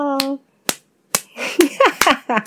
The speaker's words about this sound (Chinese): 这是什么拍手啊？太可爱了。